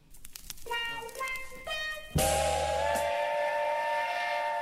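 A train whistle sound effect blows in rising stepped tones, then a loud, sustained steam whistle blast holds steady with a hissing wash of steam beneath it. Fairly loud, with no talking.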